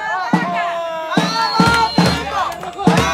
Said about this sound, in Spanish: Ahí está, ya se prendió la porra de Baja. Está muy apática la porra. Bueno, ya despertó la porra de Baja.